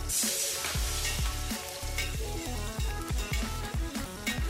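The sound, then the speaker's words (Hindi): Mustard seeds crackling and sizzling in hot oil while a tempering is cooked, a steady frying hiss with small pops, partly under a louder backing track of rhythmic music. “अब ध्यान रहे कि गरम तेल में राई डालने पर वो थोड़ा चटकते हैं तो ऐसा होने दीजिए थोड़ा खुद का ध्यान रखिए और इससे पहले कि ये चटक कर जल जाएं, हम इसमें डालेंगे थोड़ा सा जीरा और थोड़ी सी हींग”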